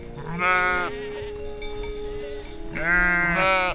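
A sheep bleats twice, each call loud and quavering, with a pause of about two seconds between them over a low steady hum.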